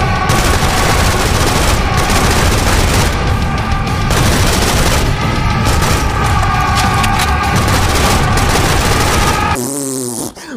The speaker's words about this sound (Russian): Когда там с пригорка на меня бежит толпень камикадзе, а я их из автомата Калашникова, или на меня бежит какая-то разношерстная толпа монстров.